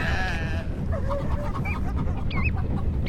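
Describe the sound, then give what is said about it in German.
Chickens on the deck of the steamship Aurora, kept among dogs and sheep, cluck and squawk in a scattered series of short, pitched calls, some rising sharply. They are heard over a constant low rumble with no voices. “Mit all den Hunden und Schafen, dem Geflügel und den Petroleumfässern an Deck ist sie der seltsamste Kahn, auf dem ich je gefahren bin.”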